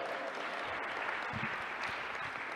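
Steady audience applause, a dense wash of many hands clapping at an even, sustained level for a few seconds, with a faint murmur of voices underneath.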